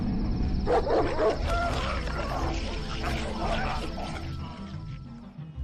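A pack of dogs barks and snarls aggressively, a loud, continuous tangle of overlapping growls and yaps with no pauses throughout.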